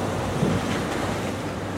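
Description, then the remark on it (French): A steady rush of ocean swell washing around a boat, heard from the bow, blended with breezy wind noise, continuous and fairly loud with no voices. “Je profite que soit après le déjeuner et que une bonne partie de l'équipe fasse euh, des petites siestes qui nous aident à nous acclimater à, la houle.”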